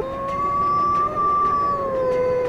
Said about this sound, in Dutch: En hij zal zeggen dat die wolven zeker nog heel ver weg zijn.